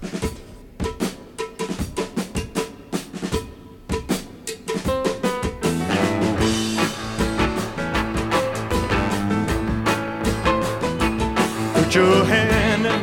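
A recorded gospel song by a well-known male singer, opening with crisp, rhythmic percussion hits before a full band swells in loudly partway through, carrying sustained melodic lines to the end.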